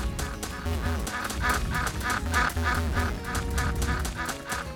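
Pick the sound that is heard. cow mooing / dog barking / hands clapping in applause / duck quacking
duck quacking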